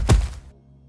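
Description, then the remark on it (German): A single heavy thud of a body slamming onto the ground after falling several meters down a hole, with a deep low boom that fades quickly into quiet rumble. “Aufprall.”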